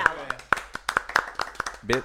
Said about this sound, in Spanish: Bien, aplausos.